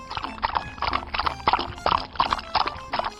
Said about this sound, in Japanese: 続いて続いてあそこにいる丸い模様の動物は水玉シマウマ